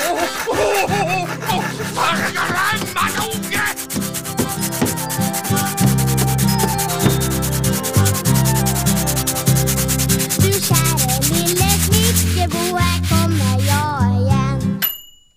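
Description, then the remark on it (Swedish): A lively carpentry-themed music jingle for the Snickerboa segment with a steady bass line, overlaid with rhythmic scraping and sanding strokes and a few light metallic dings, playing loudly for about fifteen seconds before cutting off. “Nej, starta en jingel, snickerbo i jingeln?”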